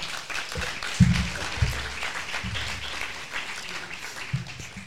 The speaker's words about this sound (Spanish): Un aplauso para Clara.